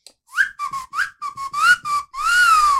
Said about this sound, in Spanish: ¿Cómo puedo chiflar? Chiflar es silbar más duro, por así decirlo.